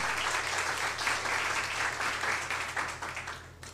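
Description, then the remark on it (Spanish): A church audience applauds for the Lord together, a dense wash of many hands clapping at steady volume for several seconds before tapering off near the end, with a low hum underneath. “Entonces, desde el principio, sí, dele un aplauso al Señor, por favor.”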